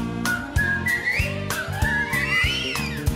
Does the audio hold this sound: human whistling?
yes